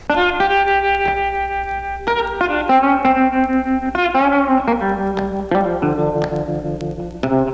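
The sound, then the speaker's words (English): A blues recording plays: a loud, steady run of sustained electric guitar notes with a distorted, effect-laden tone that shift in pitch every second or so. There are no voices. “another important part of the jazz sound was the blues. So let's hear something a little earlier from … for contrast.”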